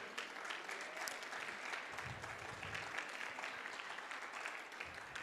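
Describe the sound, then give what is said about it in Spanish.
A church audience applauds for those watching the online broadcast, a dense, even wash of many hands clapping that holds at a constant level for the whole stretch, with no voices standing out. “¿Qué, qué les parece, iglesia, si les damos un aplauso a todos los que nos ven por las redes?”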